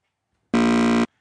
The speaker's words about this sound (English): Hit the buzzer.